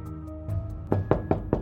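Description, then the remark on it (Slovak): Four firm knocks on a man's wooden front door, evenly spaced, following a softer thud, with a faint steady hum in the background. “O pár týždňov u neho niekto zaklope na dvere.”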